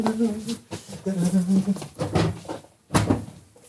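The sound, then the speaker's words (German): A refrigerator door is pulled open with a soft clunk and rattle around supper time, while someone laughs and vocalizes around it. “Vielleicht kommt er ja, wenn ich den Kühlschrank aufmache.”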